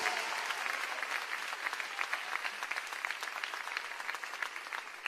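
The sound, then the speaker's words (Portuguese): Sustained applause from a large church audience, dense and steady with many overlapping claps filling the space for several seconds, no voices standing out. “Glória a Deus, mais alto suas palmas, querido.”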